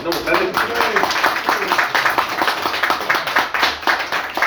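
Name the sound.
audience round of applause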